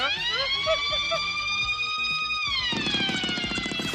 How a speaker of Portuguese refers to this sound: Se por acaso alguém pegar no teu telemóvel ou um amigo te quiser pregar uma partida, quando pega no telemóvel, ele dispara um alarme e se correr tudo bem, essa pessoa foge a sete pés.